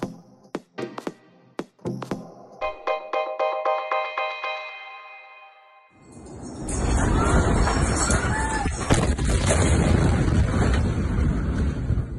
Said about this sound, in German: Die Bilder aus Beirut sind Bilder, die einem das Fürchten lehren. Am Dienstagabend ereignet sich dort die größte Explosion, die es im Libanon je gegeben hat.